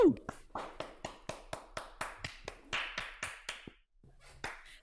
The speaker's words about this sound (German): Ein kleiner Applaus.